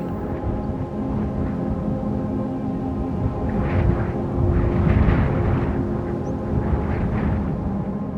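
Distant thunder rumbles low and steadily near a mountain summit as clouds and dense fog gather and the sky darkens, swelling into heavier rolls about halfway through and again near the end, with no voices present.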